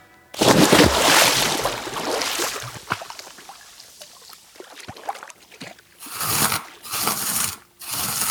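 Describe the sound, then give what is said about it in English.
Dry, crunchy crackling and scraping of Rice Krispies in a bowl as an artist paints with them in a studio in Atlanta, a dense burst at first, then scattered crisp clicks and a few more loud crunchy bursts toward the end, with no talking. “That is Rice Krispies in a bowl.”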